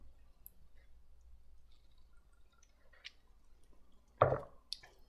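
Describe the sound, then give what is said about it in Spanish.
A quiet stretch with a few faint clicks, then one short, wet slurping sip of coffee near the end, followed by a small click or swallow. “Le voy a dar un traguito a mi café.”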